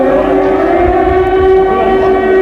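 An air raid siren in Dresden sounds at nine minutes to 10 pm on a cold, clear February night in 1945, a loud, sustained wail with a steady, slightly rough pitch throughout, with no pauses and no voices.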